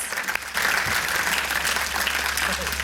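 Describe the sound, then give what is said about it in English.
A room full of people breaks into steady applause to honour people who were baptised. The applause swells quickly and holds at an even, dense, loud level of many hands clapping together. “Just give them a clap and honour you guys”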